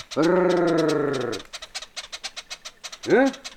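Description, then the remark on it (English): A person gives a loud, rolling trilled call used by people in Mozambique to summon honeyguide birds: a long buzzing brrr, a stretch of quick rhythmic pulses, then a short grunted hm. “But when those birds heard the trilling sound used by people in Mozambique,”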